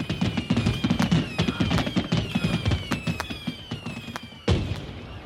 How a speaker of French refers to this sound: Oh, un feu d'artifice.